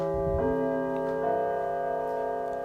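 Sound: bell ringing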